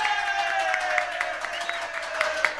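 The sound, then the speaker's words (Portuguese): Steady applause from an audience for Senator Augusta Brito, a dense wash of many hands clapping with scattered sharper claps, holding at an even level for a few seconds with no voices on top. “Aplausos para a senadora ganhando elogio de e a senadora Damares Alves.”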